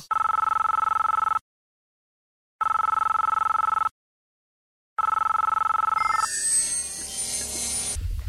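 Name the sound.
telephone ringing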